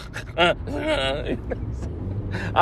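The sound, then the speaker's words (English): A voice imitates loud snoring: rough, rumbling vocal bursts with a couple of sharper snorts, fairly loud over a low rumbling background. “And then the snoring does sound. It's not embarrassing. It just sounds funny.”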